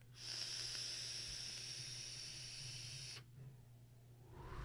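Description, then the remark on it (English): A vape coil, a Horizon Tech coil head in an Aquila sub tank filled with Mike Turk's watermelon e-liquid, sizzles and crackles with a steady, hissing fizz for about three seconds, then cuts off abruptly, leaving quiet background noise. No one speaks. “You hear the crackle?”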